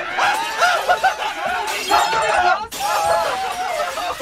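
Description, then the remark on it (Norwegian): Glass shatters in several loud crashes, each burst of bright breaking debris starting abruptly, while voices cry out and exclaim over the noise. “Nei, jeg vil ikke ha glass i ansiktet det Kan du ta ut glasset av ribbeinen min?”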